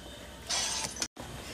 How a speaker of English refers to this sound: You done smashing that glass yet?